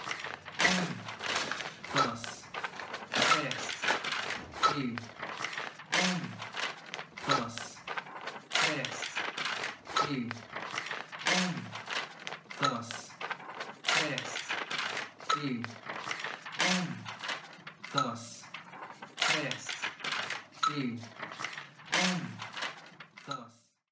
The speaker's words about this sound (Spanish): Para crear la sinfonía que acabamos de escuchar, usamos elementos que podemos encontrar en cualquier casa.